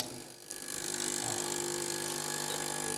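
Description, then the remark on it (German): A coffee machine in a kitchen in the morning whirs into action after a brief quiet moment as coffee is made, then runs with a steady, loud mechanical buzz and hum that doesn't let up. “Göttlicher Lärm der Kaffeemaschine.”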